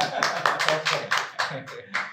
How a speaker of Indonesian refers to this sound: Tepuk tangan boleh ya? Iya. Di studio tepuk tangan dong.